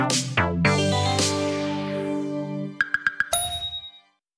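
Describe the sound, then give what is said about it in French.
A short musical jingle of layered, bell-like tones, followed by a quick run of four light pings and a final bright ding that rings and fades out. No voices. “Jingle.”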